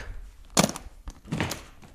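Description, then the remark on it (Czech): A sharp wooden clack, a softer knock, then a brief scraping rattle as a wooden smoothing plane is lifted out of a case. Fairly quiet, with no talking. “No a jak se říká, nosit zvony do Říma nebo samovary do Tuly, já jsem z kufříku vyndal hoblík.”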